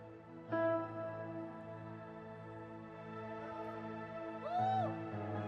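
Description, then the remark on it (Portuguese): Soft, sustained electronic keyboard chords play a slow, gentle worship-style progression, with a brighter swelling note near the end and no voices. “Aumenta o teclado.”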